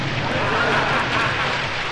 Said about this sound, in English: You're fooling around, and you haven't done nothing except that you got it raining. It's not a shower, is it?